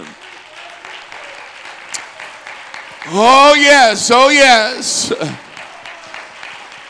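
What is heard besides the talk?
audience hand clapping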